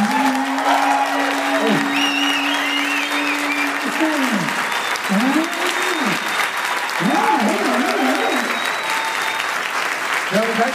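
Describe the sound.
A live audience claps steadily and densely for around eleven seconds, the applause staying at an even, loud level while a few voices whoop and call out over it.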